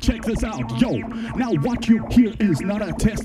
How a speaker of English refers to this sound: Now, what you hear is not a test. I'm rapping through the synthi. Now, what you hear is not a test. I'm rapping through the synthi.